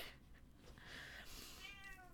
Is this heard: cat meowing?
yes